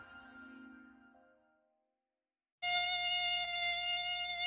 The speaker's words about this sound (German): Ob im Biergarten, am Badesee oder im heimischen Schlafzimmer. Wer das Gesurre nur einer Mücke im Ohr hat, für den ist es oft schon vorbei mit der Ruhe, bis sie beseitigt ist.